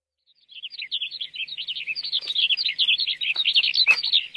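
Continuous high-pitched bird chirping in the dark of night, near midnight, a rapid stream of short, bright tweets that grows busier and louder, with a few faint clicks and rustles underneath and no voices.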